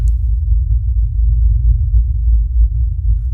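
A steady, low droning hum like a diesel engine, continuous and loud throughout with a slight pulsing rumble and no other sounds on top; a filtered recording, with no engines or vehicles nearby.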